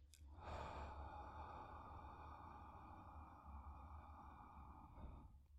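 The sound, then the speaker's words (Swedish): A slow, deliberate exhale during a breathing exercise flows steadily for about five seconds, a soft breathy rush with no talking over it, tapering off at the end. “Så att först tar vi fem sekunder och andas in och sen fem sekunder andas ut”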